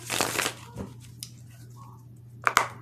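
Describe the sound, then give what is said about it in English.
Love and lust oracle cards being shuffled: a papery riffling burst at first, then quieter rustles and a couple of sharp taps near the end, over a steady low hum. “I have this love and lust oracle cards here.”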